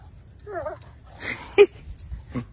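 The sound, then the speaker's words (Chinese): A dog that has taken over the speaker's spot gives a short, high, wavering whimper, followed by a few brief snuffling and shuffling noises against a quiet, low background rumble. “嗯，我走吧，这狗把我的地方给占了。”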